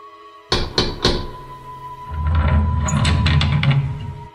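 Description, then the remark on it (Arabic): Three quick, firm knocks on a door in rapid succession, followed by a low, steady rumbling and muffled shuffling sound that continues to the end. “سيري سيري حلي الباب”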